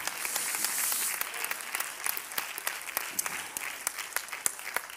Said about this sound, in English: Come on, clap your hands to the Lord tonight.